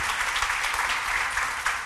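A crowd at Pit Vallarta gives visitors a round of welcoming applause, many hands clapping together in a dense, continuous wash of sound that holds at an even volume throughout, with no one speaking.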